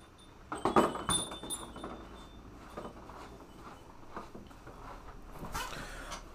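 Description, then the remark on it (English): A cat knocking things around: a quick burst of clinks and clatter, followed by softer bumps and rustling, with a brief scrape near the end and no talking. “My cat is acting up.”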